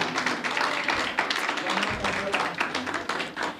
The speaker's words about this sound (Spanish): regálame un aplauso a Dios por la vida de Yare.